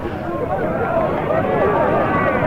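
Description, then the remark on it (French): A dense, steady roar of crowd noise with overlapping shouts, and a jumble of thudding hoofbeats as mounted police horses gallop up a hill into a crowd hurling stones, loud throughout with no pauses. “And the, and the mounted police are going in again. At a full gallop, right up the hill, in the face of missiles.”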